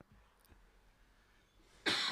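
A single sharp, loud cough bursts out near the end after a stretch of near silence, with a faint earlier throat sound.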